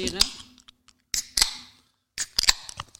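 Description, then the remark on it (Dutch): Beer bottles being opened: three short bursts of sharp metallic clicks and brief fizzy hiss, separated by quiet gaps, with faint voices murmuring in between. “Ze wilden gewoon één opentrekken.”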